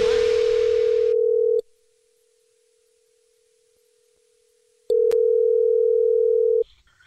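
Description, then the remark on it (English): A steady telephone dial tone hums loudly, cuts out for a few seconds of near silence with a faint click, then returns briefly before stopping, as a call is placed for a Jubal phone prank. “It's another Jubal phone prank.”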